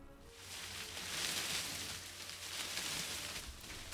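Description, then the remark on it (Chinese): Soft, continuous rustling of leaves, a steady airy hiss with gentle swells and faint crackles throughout, no voices present. “树叶的沙沙声，”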